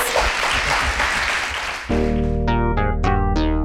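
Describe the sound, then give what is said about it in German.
A crowd claps loudly and steadily for about two seconds for the guests of a discussion on equal opportunity, then the applause cuts off as a bright musical jingle with ringing, struck notes takes over. “Einen großen Applaus.”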